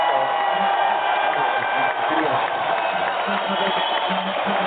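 A dense, steady wash of loud audience applause, with a crowd cheering. It holds constant for the whole stretch without fading.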